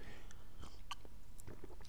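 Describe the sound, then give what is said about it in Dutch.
Someone takes a quick sip of water: soft wet mouth clicks and a small swallow over a quiet background, with no talking. “Even een slokje water.”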